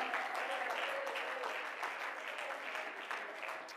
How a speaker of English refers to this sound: Come on, let's all clap our hands and praise Him tonight.